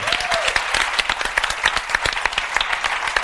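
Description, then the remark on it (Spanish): An audience breaks into steady applause, dense overlapping claps forming a bright, continuous patter that holds at an even, fairly loud level throughout, with no voices on top. “aplauso”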